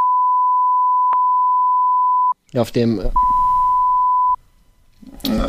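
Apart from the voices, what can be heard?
censorship bleep tone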